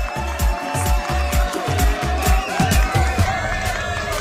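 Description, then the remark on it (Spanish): An audience applauds and cheers at the opening of a Halloween special, the second show of season 9. A steady rhythmic pounding beat runs through the crowd noise for a few seconds, fairly loud and continuous throughout. “Aplausos, ahí está.”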